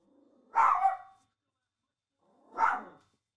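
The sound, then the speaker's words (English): Two sharp, high-pitched barks from a small male chihuahua, spaced about two seconds apart, fairly loud with silence between them. “Got a little chihuahua and he thinks he has to bark at everything.”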